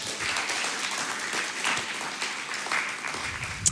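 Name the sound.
applause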